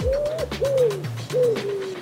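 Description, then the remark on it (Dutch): Soft, low cooing calls repeat in a steady rhythm, with a few pigeons murmuring and no one talking. “De stad Harelbeke komt met anticonceptie voor duiven.”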